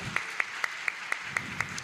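Soft, steady clapping from an audience welcoming an introduced guest, about eight even claps in quick succession with a regular rhythm, crisp and fairly faint, with no voices over it.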